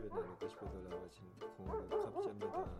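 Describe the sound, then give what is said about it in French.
Several stray dogs bark and yip in quick, uneven bursts in the street, with a voice talking over the noisy street scene. “Pendant la crise du Covid, des bénévoles ont recensé les chiens errants et les ont tous vaccinés contre leur rage.”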